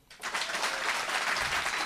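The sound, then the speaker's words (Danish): A live audience bursts into applause after a brief quiet moment, answering how many have seen the film Elvis Hansen, en samfundshjælper; many hands clapping in a dense, steady wash of sharp crackling claps that holds loud and even to the end. “Øh, det her det er en podcast, så I må meget gerne klappe, når jeg spørger, hvor mange af jer har set den?”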